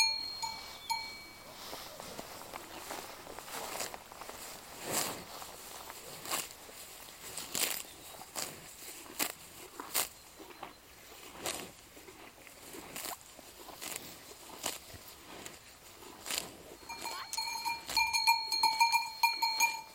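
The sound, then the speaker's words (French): Cows graze and crop grass in a pasture on rented land, their bells clanking irregularly with bright metallic rings, alongside soft rustling and footstep-like patter. The clanks grow busier toward the end; no one speaks. “Il loue ses, ses terres à Christophe et, et au moins ces vaches, elles peuvent euh, manger, brouter.”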